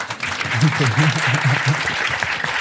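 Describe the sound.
Steady audience applause for a woman performer fills the whole stretch, a dense crackle of many clapping hands, with a voice speaking briefly over it near the start.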